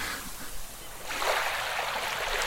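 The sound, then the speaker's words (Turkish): A seaside waves sound effect: a steady wash of waves, a soft hiss that swells louder about halfway through and holds as surf rushing in, with no voices present. “sizle şöyle sahilde bir tur atalım.”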